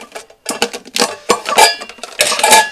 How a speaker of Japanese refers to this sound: ちょっと食器を今ね片付け食器を今片付けながら喋ってるのでちょっとカチャカチャ音がしてますが